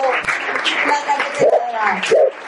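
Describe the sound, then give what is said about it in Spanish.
A dense burst of clapping, steady and fairly loud for a couple of seconds, with a few short voiced yelps or calls rising over it, as an audience applauds a woman writer at a cultural event about her book. “Un aplauso muy fuerte para ella, por favor, hasta el perrito”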